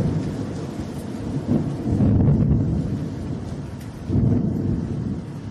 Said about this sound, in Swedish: Mm, och om man ska tolka tecknen så är det ju någonting märkligt som händer för molnen hopas och ett fruktansvärt åskoväder dundrar igång också.